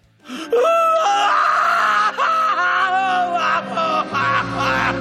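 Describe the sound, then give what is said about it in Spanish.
A man's voice imitates loud crying, letting out sustained, wavering wails that rise and fall for several seconds with brief catches between them, continuous with no other talk. “Hombre llorando.”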